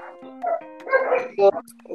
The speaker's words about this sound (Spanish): Oye, calla los perros, pues, weón.